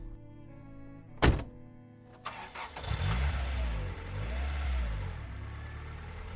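A car door thunks shut, then the engine cranks and starts, settling into a low rumble that revs and pulls away. No voices.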